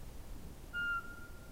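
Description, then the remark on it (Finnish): A single pure, monotone whistled note from a Eurasian pygmy owl, Europe's smallest owl and only bullfinch-sized, rings out briefly and fairly softly, then fades. It is heard from a yard in the dark before 5 a.m. in early April, against a quiet, hushed background with no voices. “Äänessä on Euroopan pienin pöllö, varpuspöllö, vain punatulkun kokoinen, palleromainen, pikkupeto vailla vertaa.”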